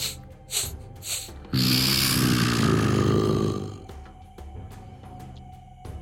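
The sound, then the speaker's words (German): A sabre-toothed tiger with long, sharp front teeth sniffs at a cage: two quick, breathy sniffs, then a long, loud snuffling exhale with a deep, rumbling growl underneath, fading into faint clicks and quiet. “Wum, der Säbelzahntiger mit gewaltigen, scharfen, langen Vorderzähnen ähm, kommt er an den Käfig ran von Morgul und schnüffelt so.”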